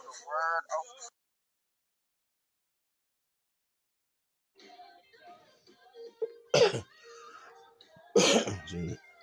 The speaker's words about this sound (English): Hi, you guys. Excuse me for that cough.